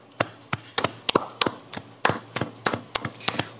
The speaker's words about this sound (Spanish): Qué risa que tus aplausos se escuchan con eco así, marico, durísimo, Que estoy en el poliedro, hermano, no ves aquí.